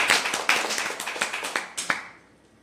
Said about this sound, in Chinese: 是不是给这么有实力的公司一个掌声？谢谢。